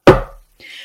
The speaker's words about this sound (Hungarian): És hogyha a felolvasáskor vétettünk, kihagytunk egy szót, félreolvastunk valamit, akkor az osztály kopogott egyet.